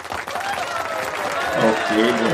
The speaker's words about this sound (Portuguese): As palmas, as nossas se bateram palmas.